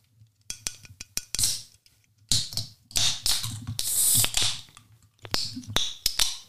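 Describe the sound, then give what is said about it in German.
A pink drink can with a hummingbird on it being opened: a few sharp metallic clicks from the tab, then repeated bursts of fizzing hiss as the gas escapes, over a faint low hum. “Aber jetzt äh, öffnen wir erstmal hier dieses Getränk. Es ist total schön, also die Dose ist rosa.”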